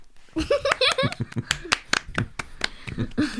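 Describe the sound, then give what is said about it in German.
An audience applauds with sharp, separate claps in an uneven patter, fairly loud, while voices call out and cheer over the clapping for the first second or so. “Das war ein sehr schöner Applaus.”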